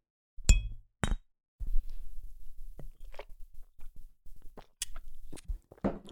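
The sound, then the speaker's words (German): Two bright, ringing clinks of a glass tapped against the metal of a microphone in a toast, a half-second apart, followed by softer mouth and handling noises as someone drinks. “Wollen wir einfach gegens Mikro äh, anstoßen?”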